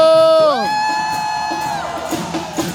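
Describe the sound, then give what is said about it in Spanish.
An audience shouts with joy: one loud, sustained whooping cry rises and holds over a bed of cheering voices, then fades into scattered crowd noise. “Alguien de un grito de júbilo.”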